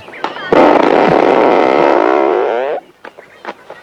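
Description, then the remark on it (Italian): In an Italian comedy film scene, a long, loud, buzzing fart rips out for about two seconds with a wavering pitch, then cuts off abruptly, followed by a few short, faint voice sounds. “La ah, signora allora deve regolare il culo perché gli va un quarto d'ora indietro.”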